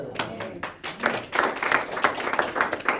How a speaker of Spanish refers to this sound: Dele palmas a Cristo.